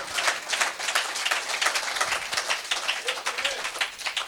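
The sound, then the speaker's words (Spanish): A church audience applauds for God, a dense, steady wash of many hands clapping at once with no clear individual beats, holding at an even loudness throughout with no talking over it. “Déselo fuerte a nuestro Dios.”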